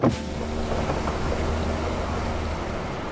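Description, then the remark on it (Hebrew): A bus window is opened on a trip bus with a brief sliding clunk, followed by a steady rush of wind and road noise over a low engine hum. No one speaks. “איך, איזה ריח, תפתחו חלונות.”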